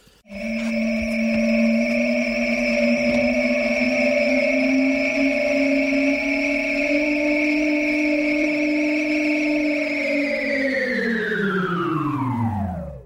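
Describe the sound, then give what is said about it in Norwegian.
A time machine sound effect: a loud, sustained electronic drone with bright overtones, pitch creeping slightly upward for about ten seconds before sliding downward as it powers down. “Vi tar oss og hopper inn i tidsmaskinen, og så kaster vi oss uti”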